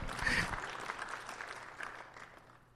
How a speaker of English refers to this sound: My wife just stepped out probably to feed the baby because I was like, I needed a little more applause from her. There we go, come on.